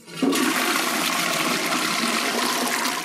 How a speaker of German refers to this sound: Mit jeder Toilettenspülung schicken wir literweise sauberes Wasser auf den Weg zur Kläranlage.